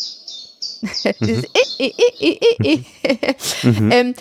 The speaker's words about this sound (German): Äh, diese Vogelstimmen und wie die aufeinander reagieren, das erscheint einem,